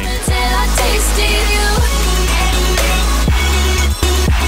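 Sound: electronic music track playing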